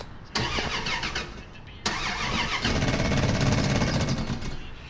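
The engine of an old classic car is turned over, cranking with a fast, rhythmic churning that never catches: a short attempt, a brief pause, then a longer, louder try. Loud, with no voices.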